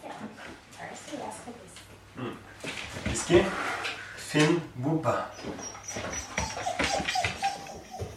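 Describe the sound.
A border collie named Whisky, from Bergen in Norway, whimpers and gives short excited yips while carrying out its owner's command to fetch one of the 70 toys whose names it knows from another room. A person speaks a few brief words, with rustling movement and shuffling underneath.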